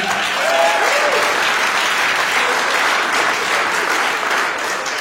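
Steady, dense applause from an audience welcoming a guest from the Stichting Present foundation fills the whole stretch, a broad even wash of many hands clapping at once, loud and sustained with a faint tonal whistle or cheer early on.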